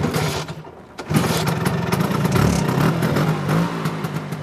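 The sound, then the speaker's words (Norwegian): A 1962 Vespa scooter at the Norwegian Vespa Scooter Museum is kick-started: its small engine sputters to life after a second of quieter noise, then runs with a buzzy, uneven idle and brief revs, loud and steady to the end with no talking. “Dette er jo da en 62-modell, eh, så den er liksom Der må man tråkke i gang, da.”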